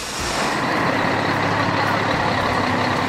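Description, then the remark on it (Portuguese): A heavy truck about 7 metres long idles and rumbles as it is maneuvered, its engine noise steady and loud throughout with a broad hiss of machinery, and no one speaking. “Manobram máquinas de 7 metros de comprimento.”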